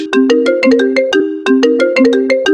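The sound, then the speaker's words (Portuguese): A phone ringtone plays loudly, a bright repeating electronic melody with sharp percussive clicks cycling about every second, with no voices over it. “Atividade no telefone que ele tá tocando, meninas.”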